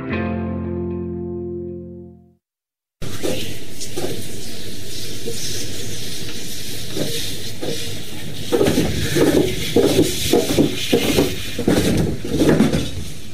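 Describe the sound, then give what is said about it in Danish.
Wet clay spinning on a potter's wheel: a steady, hissy whir with soft squelching, turning into a run of rhythmic wet slaps and squishes toward the end, after a brief fading musical tone. “Det var lyden af vådt på en drejeskive”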